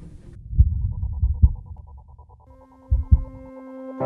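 A German pop song by a young German-Polish female singer opens with soft, deep bass thumps like a slow heartbeat, then a steady electronic chord swells in over the pulsing beat. No one is singing yet.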